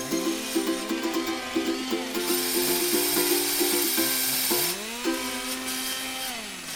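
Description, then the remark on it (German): A circular saw whirs up with a rising, high-pitched motor whine and a hiss of noise, loud, while bright plucked ukulele notes play along underneath. “Stell dir vor, jetzt läuft, stell dir mal vor, jetzt läuft so eine Ukulele und jetzt geht so eine Kreissäge an”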